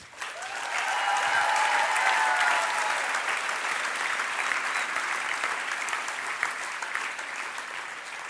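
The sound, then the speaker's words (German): Sustained audience applause from a sizable crowd, dense steady clapping that swells quickly and holds at full volume, with a few faint cheers mixed in early on; the applause is given for God during a church gathering after a healing story. “Und ihr dürft einen Applaus für unseren Gott geben.”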